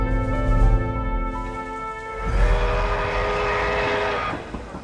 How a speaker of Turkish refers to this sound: Neden burası önemliymiş? Burası tren istasyonu. Gar gar.